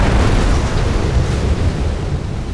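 A ship carrying World War I munitions explodes after two ships collided in Halifax harbor on December 6, 1917: a huge, loud explosion, a deep, thundering rumble that stays heavy and sustained for a couple of seconds without fading, with no voices over it.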